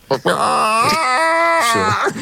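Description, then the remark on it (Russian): A man imitates a chicken with a drawn-out, wavering vocal call whose pitch steps up and down in a few sustained segments, loud, filling about two seconds. “Ну-ка, давай курицу. курицу давай.”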